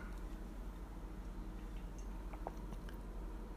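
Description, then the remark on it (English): Mouth sounds of someone sipping water, with soft wet clicks and a faint swallow over a low, steady background hum. No one speaks. “I, I got to take a sip of water.”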